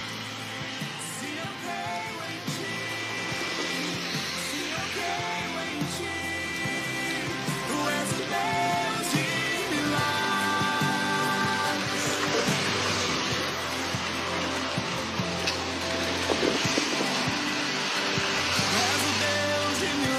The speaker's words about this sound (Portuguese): Olha, eu pedi a chuva, olha. Ele mandou a chuva.